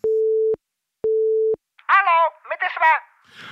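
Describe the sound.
Two steady, evenly spaced beeps of a telephone line tone, each about half a second, sound clearly before a voice starts talking over the line, in a recorded phone call.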